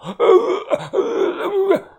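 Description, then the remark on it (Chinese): A strained, choking groan from an old man being strangled, gripped by the throat and lifted off the ground with one hand, broken into three gurgling, rasping bursts with sharp gasping catches between them, loud and with no speech. “老头的双腿悬空乱蹬着，嘴里呃的乱叫着，脸色逐渐由红变黑，再由黑变紫。”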